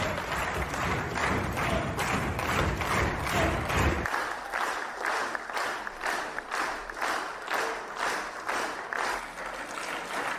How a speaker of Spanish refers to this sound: la manera como aplauden los africanos en este congreso me pareció rara, porque aplauden, aplauden como que lento. No es lo principal del video para nada, pero su manera de aplaudir me pareció bastante extraña.